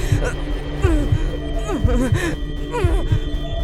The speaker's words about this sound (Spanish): Podía sentir los latidos de mi corazón.